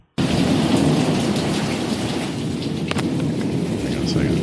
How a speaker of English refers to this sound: Here's a sound of a good thunderclap.